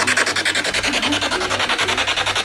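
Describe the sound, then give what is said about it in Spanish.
Spirit box radio static sweeping in rapid, evenly chopped bursts, roughly ten pulses a second, loud, a harsh hiss that stutters steadily throughout with no voices, used to search for ghosts in a room of a house. “BUSCAMOS FANTASMAS CON UN SPIRIT BOX”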